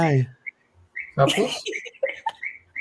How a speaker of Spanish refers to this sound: ¿Escucharon un ruido? Sí, son los sapitos. Es que ha llovido y aquí en la selva. Ah, eh, esos son los sapitos de allá.